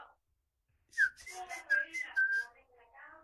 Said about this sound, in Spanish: Así nos chiflábamos nosotros.